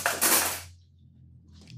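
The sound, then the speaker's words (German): A pan with butter in it, set on to heat, clatters against a stovetop with a bright metallic rattle that rings out and fades within a second, followed by a faint clink and a low steady hum underneath. “So, Butter in die Pfanne und erhitzen.”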